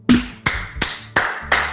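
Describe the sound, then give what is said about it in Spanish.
A single person claps for themselves: five sharp, fairly loud claps at a slow, steady pace, with no talking. “Autoaplauso.”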